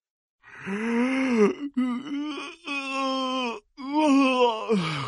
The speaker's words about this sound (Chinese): 三小时过去了，大笨熊揉揉眼睛，打了一个大大的哈欠。